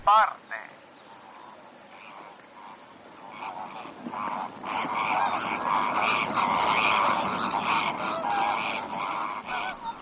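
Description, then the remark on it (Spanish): A flock of flamingos, part of the Nile's wildlife, calls continuously, their nasal, goose-like honks overlapping into a dense chorus that swells louder about halfway through and stays busy to the end. “lo que escuchamos de fondo son flamencos.”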